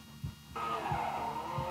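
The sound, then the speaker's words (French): A car does a simple slide with tires skidding and squealing, a sustained high screech starting abruptly partway in over a low rumbling engine with rhythmic pulses. “Jusque-là, c'est des glisses simples.”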